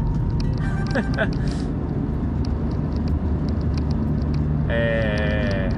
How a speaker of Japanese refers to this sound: 何やってんだこの車、どけよ。